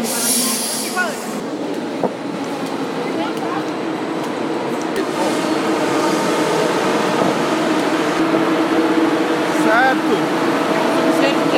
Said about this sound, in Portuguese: Esse é o barulho do bichão. Agora entramos. O que aconteceu foi o seguinte: o trem entrou na plataforma muito rápido e passou passou e foi embora. E parou muito na frente.